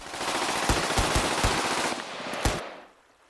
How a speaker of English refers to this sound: After thirty minutes, that seemed an eternity, the dark night was lit up with gunshots and blasts from upstream.